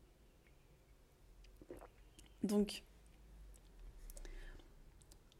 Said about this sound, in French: Et je bois juste une gorgée de... Là j'ai fait une tisane à la rose.